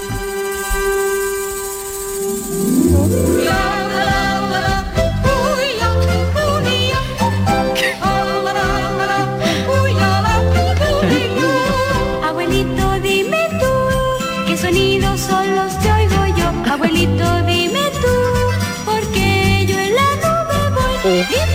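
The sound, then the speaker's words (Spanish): A song opens with sustained alphorn tones, then a Tyrolean yodeling voice leaps between high and low notes over a full, loud band that plays steadily to the end. “Bueno, pues en este primer verso que hemos escuchado, tras la tradicional entrada tirolesa,”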